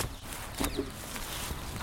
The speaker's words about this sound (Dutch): Ja, zullen we even gaan kijken? Want er zitten ook een soort van kijkgaten in. Ja, we gaan even de bosjes een beetje half hm. in om het wat dichter te bekijken